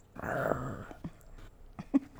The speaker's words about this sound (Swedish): Ni har en hund som vill leka. Så tröttsamt.